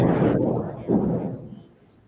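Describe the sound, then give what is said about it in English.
A deep, rolling rumble of thunder from a huge storm coming through the West Village swells twice and then fades away over about two seconds, heavy in the low end and fairly loud, with no voices over it. “Thunder? it's thunder. There's a huge storm coming through right now.”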